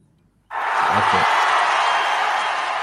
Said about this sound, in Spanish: No, pues qué aplauso para nosotros.